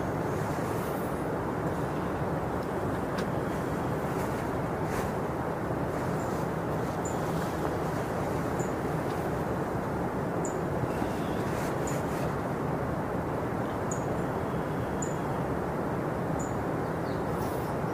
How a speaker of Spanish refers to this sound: sino que te haces consciente de todos los sonidos que lleguen del exterior, van a ser en esta ocasión el río, los pájaros, puede ser el fresco de la mañana, si te golpea el sol en la piel, lo que sea.